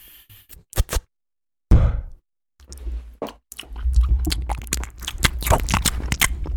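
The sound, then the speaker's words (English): Exaggerated chewing mouth noises, wet: a few sharp smacks, a pause, then a steady run of loud squishy clicks and smacking, as if someone is mimicking noisy chewing. “Like, if I can hear someone chewing or breathing or, like, any of that stuff, I can't stand it.”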